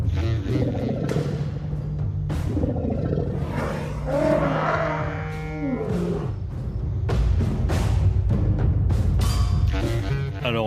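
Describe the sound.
Crime novelist Caryl Férey imitates a lion's roar with long, loud, rumbling growls and snarling rises, sustained for about ten seconds without any spoken words.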